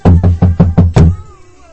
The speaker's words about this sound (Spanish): una persona y toca la puerta de la casa de Pinocho